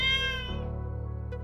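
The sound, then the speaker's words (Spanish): A single drawn-out cat meow, loud, starting bright and high then sliding down into a lower, wavering whine that fades out. No one speaks. “También le contó al público que por entonces vivía en el Molino del Ingenio con 16 gatos, a los que les leía recurrentemente, pero según él no lo escuchaban nada.”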